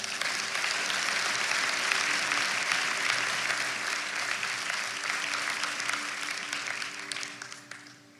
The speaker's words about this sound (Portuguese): Bata uma salva de palmas para Jesus.